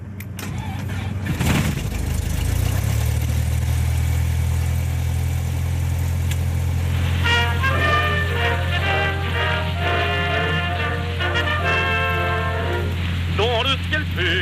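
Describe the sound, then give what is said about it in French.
A small aircraft engine coughs to life and settles into a steady, deep droning hum while taxiing to the holding point for runway 11. Partway through, a voice starts talking in French over the constant engine noise. “Donc on roule pour le point d'arrêt piste 11 et on laissera passer devant nous le Juliette Tango pour un, départ euh, en patrouille à 30 secondes.”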